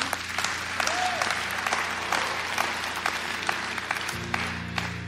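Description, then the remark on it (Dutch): A crowd applauds steadily for several seconds for the people who prayed along in a prayer, a dense wash of clapping with sharp individual claps popping out, while a low sustained hum runs underneath. “Laten we applaus geven voor de mensen die dat hebben meegebeden.”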